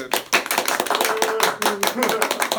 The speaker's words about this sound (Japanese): 拍手